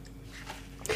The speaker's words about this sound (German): Sie blättert noch.